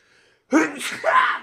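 A single loud sneeze bursts out abruptly after a moment of near silence, with a sharp intake and explosive breathy release that trails off over about a second.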